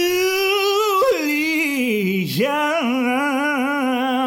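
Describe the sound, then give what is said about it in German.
A visiting dog whimpers in one long, unbroken whine, loud, its pitch wavering and briefly dipping before rising again, with no talking over it. “der arme Hund, der gerade zu Besuch.”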